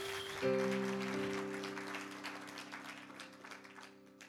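A crowd claps steadily in praise of Jesus, a dense, continuous wash of applause, while a sustained organ-like chord enters early and holds underneath as the clapping slowly eases.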